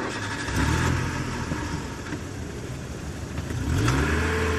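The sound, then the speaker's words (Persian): A car engine revs and accelerates hard as the car speeds off at full speed up Valiasr Street, its pitch sweeping upward in two surges, loud, with steady road noise underneath and no talking. “با تمام سرعت انداخت تو خیابون ولیعصر رو رفت بالا از اونجا پیچید توی تخت و بعدش هم اتوبان مدرس و یه تیکه رفت بالا”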